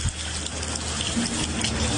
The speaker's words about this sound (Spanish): En Barbacoas, Nariño, los habitantes de ocho barrios continúan afectados por el desbordamiento del río Telenví. La zona comercial fue una de las más afectadas.